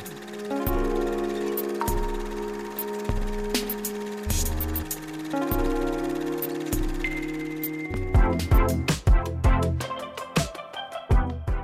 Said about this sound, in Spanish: Ya estaban escuchando esta cortinilla